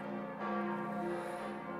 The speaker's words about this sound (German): Im 91 Meter hohen Turm hängen acht Glocken und bilden, angeführt vom dunklen F0 der 6,5 Tonnen schweren 1958 gegossenen Jubiläumsglocke, das tontiefste und eines der mächtigsten Geläute Münchens.